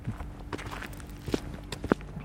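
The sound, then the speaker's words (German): Footsteps walking on pavement at a steady pace toward manhole covers on a wheelchair parking space about eight metres from a container, with a handful of firm, evenly spaced steps and faint street ambience underneath; no one speaks. “Also wieder so Gullideckel, können wir mal kurz hinlaufen.”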